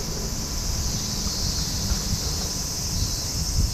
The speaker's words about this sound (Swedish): Vi lämnar visningsrummet och går ut i förmiddagssolen där cikadorna spelar på högsta volym.